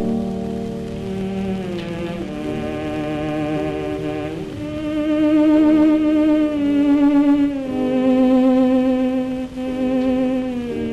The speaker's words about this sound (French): Oui, en fait, j'avais fait exprès de sélectionner des sons non caractéristiques des ondes Marteneau. Hein, parce que si je t'avais fait entendre ça